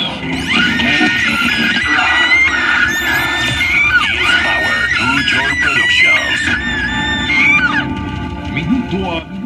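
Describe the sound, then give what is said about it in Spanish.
A chaotic crowd of people screaming and wailing, many overlapping high-pitched cries rising and falling continuously at full volume for the whole stretch, with a dense rumble of voices underneath. “Caos en toda la tierra, todas partes, con gritos y sonido de ambulancia.”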